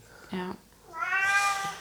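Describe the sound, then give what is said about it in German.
A cat sitting on the floor meows twice: a short low call, then a longer, rising, strained meow with bright harmonics, over faint room noise. “das ist die Katze, die hockt hier bei uns am Boden.”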